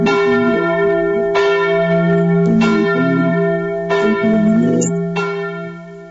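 Church bells peal loudly and steadily, with fresh strikes every second or so layering over a sustained, shimmering hum of overlapping tones, resonant with no voices.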